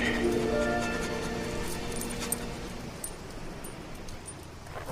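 A dog whines and whimpers in long, high, drawn-out tones over a steady noisy background, fading after a few seconds into continuous hiss with no clear barks.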